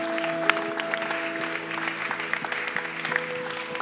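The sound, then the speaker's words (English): A church audience applauds God after a prayer, clapping steadily in a dense wash of overlapping handclaps with scattered sharper claps standing out, holding a fairly even loudness throughout with a faint sustained tone beneath. “Let's applaud our King, our Lord, for what he is doing.”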